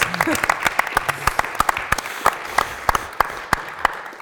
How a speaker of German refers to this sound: Genau, Applaus. Applaus.